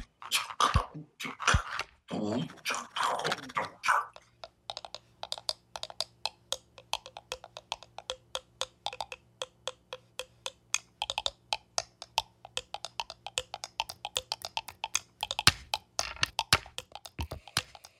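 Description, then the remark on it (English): A brief burst of voice gives way to dark, bassy grinding music made entirely of skulls and teeth: a steady low drone under dense, rapid crunching clicks that keep going for over ten seconds. “made entirely of skulls and teeth, and it's a sort of I don't know brooding, bassy, typical map grinding like, sound.”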